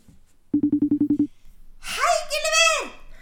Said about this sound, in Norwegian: Jeg ringer til dukkevennene mine på FaceTime, som bor oppe på land.